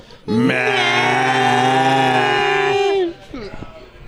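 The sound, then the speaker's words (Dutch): Four voices together imitate a Monday-morning air-raid siren as a jingle made live, holding a loud, droning, harmonic-rich tone for nearly three seconds before it cuts off, followed by brief murmuring. “Als een soort van maandagochtend luchtalarm.”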